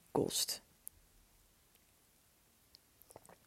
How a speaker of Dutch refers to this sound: ik nam heel even een slokje koffie. Ik hoop dat je dat niet eh, te hard hoorde.